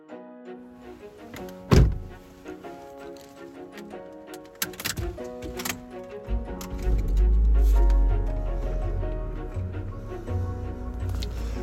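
A solid car door thunks shut as someone gets back into the car, followed by shuffling and small clicks inside the vehicle, then a low rumbling hum as if the engine or ventilation starts up.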